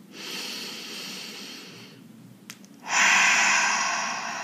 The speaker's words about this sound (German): Das Erste ist immer atmen. Schritt 1 ist immer atmen. Weiter atmen und vor allem tief und langsam ein- und ausatmen.